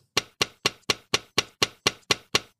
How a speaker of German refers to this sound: Hammer auf Luftstahlsieb. Hört sich an wie ein Gericht.